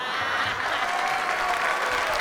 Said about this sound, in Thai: โชคดีครับต้องขอปรบมือให้กับผู้ผลิตน้ำบ้านเราครับ ที่เล็งเห็นจุดนี้ ทุกคนปรบมือคุณตันโอชีครับ